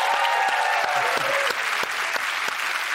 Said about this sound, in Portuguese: Levanta, levanta Opa, opa, opa, levanta aí para aplaudir.